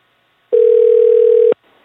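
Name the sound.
phone call ringback tone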